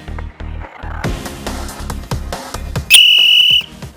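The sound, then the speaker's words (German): A sharp, high referee's whistle blows once for kickoff, held steady for about half a second over a busy backdrop of rhythmic music with strong beats. “Anpfiff Folge 1.”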